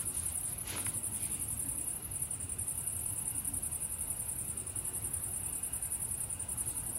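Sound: crickets chirping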